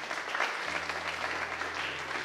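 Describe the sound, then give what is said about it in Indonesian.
A church audience claps hands for Jesus in a dense, steady burst of applause, loud and continuous, with a low sustained hum or tone running underneath from partway through. “Tepuk tangan dulu buat Tuhan Yesus.”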